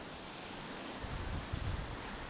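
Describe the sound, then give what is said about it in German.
Ocean waves wash steadily in a soft, continuous hiss, with low rumbling swells building gently partway through, recorded at 2:30 a.m. Central European Time. No voices, just the even surf. “Wellen Meer Herzschlag - nur du und die Töne des Meeres”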